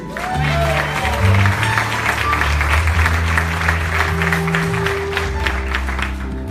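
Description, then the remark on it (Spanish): Steady audience applause at an evening church service for a visiting prophet fills the whole stretch, a dense wash of many hands clapping at once, loud and sustained, with a low sustained musical tone and some crowd murmur underneath. “un aplauso para él.”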